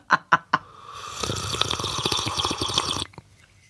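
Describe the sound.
A voice imitates a trout in a creek briefly surfacing to slurp water: three quick wet clicks, then a sustained bubbly, gurgling slurp lasting about two seconds before stopping abruptly.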